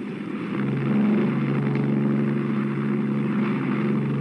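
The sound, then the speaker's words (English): A steady, throbbing drone of heavy propeller engines as 30-ton Lancaster bombers take off from an aerodrome at night by moonlight while others already in the air drone on, loud and continuous, with a deep pulsing low hum that swells slightly as the aircraft power up for takeoff. “The throbbing drone of bombers already in the air, the rising crescendo of others mounting to join them”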